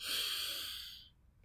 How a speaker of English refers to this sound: So that exercise of breathing in